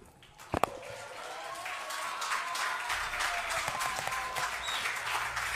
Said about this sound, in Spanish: Sí, yo le he preguntado, pero me parece que tal vez no escuchó por los aplausos que había.